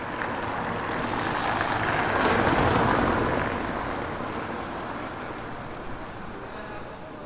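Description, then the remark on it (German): Wind sweeps fallen autumn leaves across wet asphalt and shiny pavement, whirling them up, in light drizzle, a steady rushing hiss that swells to a peak midway through, then eases back to a lower wash. “Gleich fegt der Wind wieder gefallenes Laub über nassen Asphalt, wirbeln Blätter in die Höhe und auf glänzendes Pflaster.”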